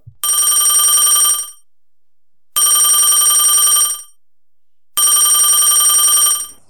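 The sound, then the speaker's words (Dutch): A telephone rings three times, each burst a bright, rapid electronic trill lasting over a second, separated by short silences. It is loud, with no talking. “Hè? Wat hoor ik nou?”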